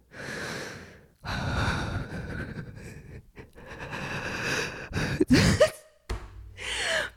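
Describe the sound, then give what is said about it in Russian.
A voice imitates a man's heavy, breathy panting into someone's ear, several long noisy inhales and exhales in a row with a brief gasp near the end, no words spoken. “И он наклоняется ко мне и дышит в ухо такой.”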